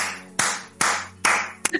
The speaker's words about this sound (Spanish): Voy a hacer dos cosas ahora mismo, dos cosas. La primera es aplaudirte por lo que acabas de decir, de verdad.